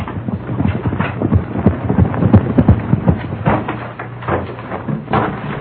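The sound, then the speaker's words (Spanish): A horse's hooves clop in a quick, steady rhythm on a hard surface, fairly loud, as the horse is stopped at a humble dwelling in the village of El Puerto. The hoofbeats stay busy throughout, with a slight lull near the end. “Porfirio Cadena siguió hasta el poblado del Puerto y en una de aquellas viviendas humildes detuvo su caballo.”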